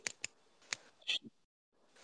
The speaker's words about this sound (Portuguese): Ah, ficar fazendo barulho de caneta no, no microfone.